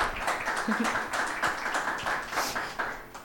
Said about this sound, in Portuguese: A Ana é a atual curadora do Cinema Batalha e por isso peço-vos um aplauso para a Ana, só assim para começarmos.